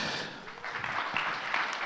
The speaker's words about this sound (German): Gebt ihnen einen herzlichen Applaus.